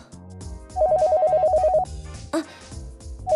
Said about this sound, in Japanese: お電話ですねなんか胸騒ぎの予感がしますが。